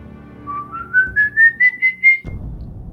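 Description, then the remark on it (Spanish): A person whistles, imitating a ghost's whistle, an eerie, slowly rising tune in a string of pulsing notes that climb steadily in pitch, then cut off abruptly, leaving low background rumble. “si escuchas su silbido cerca es porque está lejos, si lo escuchas lejos es porque está cerca y el silbido es este.”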